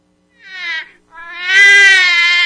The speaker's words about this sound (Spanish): Es el efecto que tiene Panchito en cabina El bebé llorando.